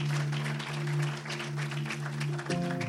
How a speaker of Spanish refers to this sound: los recibimos al frente con un fuerte aplauso.